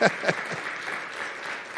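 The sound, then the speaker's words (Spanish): Steady audience applause for God fills the space, a dense wash of many hands clapping at moderate volume, with a few brief vocal bursts near the start. “Ah, el aplauso a Dios y se lo va a dar, se verdad.”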